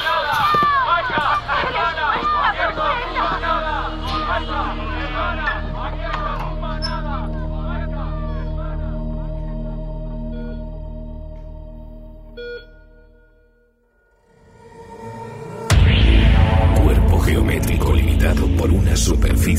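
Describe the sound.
A dense crowd at a spontaneous protest in front of the Ministry, many overlapping voices shouting, calling out and chanting many slogans, fades to near silence before a loud, harsh burst of noise takes over at the end.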